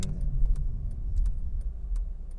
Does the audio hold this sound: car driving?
yes